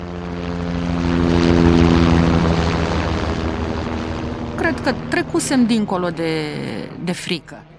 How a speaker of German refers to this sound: Plötzlich übertönte das Geräusch eines näherkommenden Hubschraubers das Geschrei und die Buhrufe.